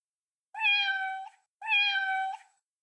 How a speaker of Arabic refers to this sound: في يوم وجد رجل عجوز أمام بيته قطا يموء.